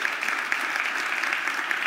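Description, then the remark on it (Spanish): Steady applause from a crowd giving a loud round of applause to God, a dense wash of many hands clapping at once with no pauses, fairly loud and even throughout. “Vamos a dar un aplauso fuerte a Dios, porque la presencia de Dios”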